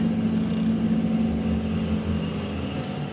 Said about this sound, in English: The mud flying was pretty epic. I got a little video of that. The road's washed out and the wheels are spinning in the mud.